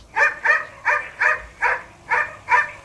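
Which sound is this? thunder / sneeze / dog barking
dog barking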